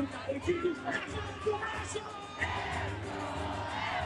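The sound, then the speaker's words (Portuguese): A dense crowd shouts and cheers together at a festival in the Arena Planeta Boi, many voices overlapping in a loud, continuous roar with excited whoops rising above it, steady throughout. “Manda um grito aí!”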